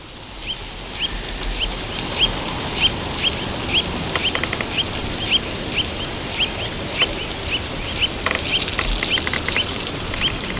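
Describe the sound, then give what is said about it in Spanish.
A dense chorus of carrion crows calling at a communal roost early in the morning in autumn, short harsh calls repeating steadily over a constant wash of background noise, with many birds overlapping. “Un dormidero, un despertadero de cornejas a primera hora de la mañana.”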